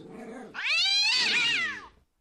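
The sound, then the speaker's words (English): A cat lets out a long, loud, wavering yowl, preceded by a brief lower grumble, the cry rising and falling for nearly two seconds before cutting off. “Ah, kitty, kitty, back away, kitty, kitty, back away.”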